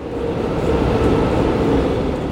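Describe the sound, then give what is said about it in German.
A subway train rumbles into a station, a steady, loud, low roar of wheels and motor filling the short stretch with no voices. “Zum Beispiel, man ist an einer fremden Stadt und möchte gerne mit der U-Bahn fahren. Die kommt in 30 Sekunden”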